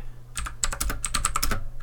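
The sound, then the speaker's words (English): Rapid clacky keystrokes on a mechanical keyboard, a quick irregular burst of a dozen or so sharp clicks, fairly loud, with no talking. “Enjoy the sound of my mechanical keyboard.”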